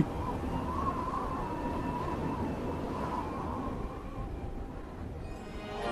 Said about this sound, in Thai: โอ้ยลมแรงจริงๆ คงจะเป็นคืนข้างขึ้นสินะ ถึงได้อากาศหนาวอย่างนี้